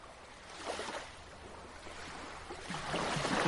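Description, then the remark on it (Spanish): Ocean waves wash and lap steadily around a boat in the middle of the Atlantic Ocean, with broad swells of surf swelling up near the start and again louder toward the end, a faint breeze rushing underneath. “¿Cómo vinimos a parar en medio del Océano Atlántico en este bote”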